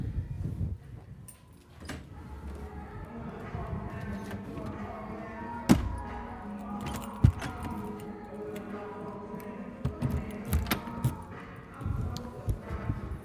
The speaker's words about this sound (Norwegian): Så tar jeg bare med nøkkelen og låser av her, så ikke noen andre kan gå inn. Sånn.